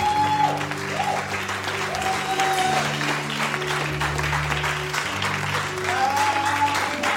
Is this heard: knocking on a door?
no